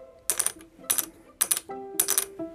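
Four sharp, bright, high-pitched clicks of a small, dense shogi piece dropped onto a hard surface, each with a short ringing tail, spaced about half a second apart, fairly quiet with no voices; recorded on an iPhone.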